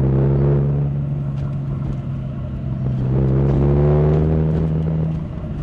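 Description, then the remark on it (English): A car engine hums steadily from inside the vehicle in Toronto traffic, approaching the Queensway exit at South Kingsway, its low drone rising and easing as it creeps and slows in stop-and-go traffic, with a constant road rumble underneath. “the traffic slowed down again. Now we're coming up to the Queensway exit, South Kingsway.”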